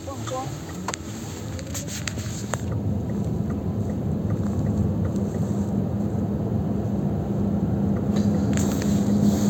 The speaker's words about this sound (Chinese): 这个这不是无人车吗？我以为会是没有人的。